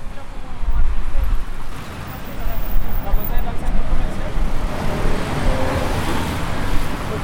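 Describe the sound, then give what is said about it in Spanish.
Dense, steady rumble of heavy road traffic fills a busy city avenue heading toward Boulevard Niza, loud, with vehicles droning past continuously while a person walking along speaks over the noise. “caminando aquí hacia Boulevard Niza, vamos por la avenida y hay mucho tráfico.”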